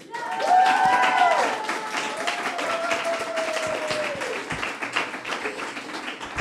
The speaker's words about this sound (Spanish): Bueno, gracias por aplaudir, pero me gustaría que aplaudierais otra vez ahora, ¿vale? Cuando diga bienvenidas y bienvenidos a la zorra que todo lo sabe.